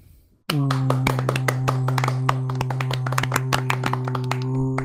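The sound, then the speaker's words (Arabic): At an informal anime awards announcement, after a short quiet moment, loud rapid clapping bursts in and continues steadily, sharp claps layered over a constant low humming tone until the end. “قلتها لازم تصفيق يا عيال اوكي؟ اوكي تصفيق”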